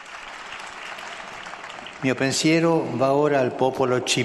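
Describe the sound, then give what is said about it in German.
A crowd applauds the newly beatified woman with a dense, steady wash of clapping; after about two seconds a voice starts speaking loudly over the applause, which keeps going underneath. “Möge ihr Beispiel als gute und reise Frau diejenigen stärken, die für die Verbreitung des Reiches Gottes arbeiten, einen Applaus für die neue Selige.”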